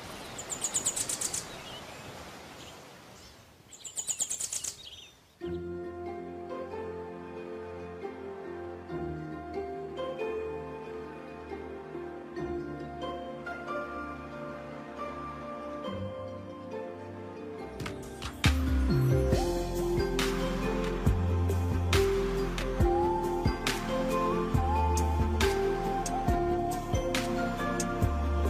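An instrumental song intro: a few seconds of rustling, fluttering noise give way to a sustained melodic line, then bass and percussion join and the music grows fuller and louder. No one speaks.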